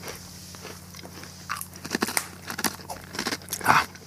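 Crisp crunching of speculoos biscuits being bitten and chewed, a series of sharp irregular cracks and crackles over a low steady hum, with no talking.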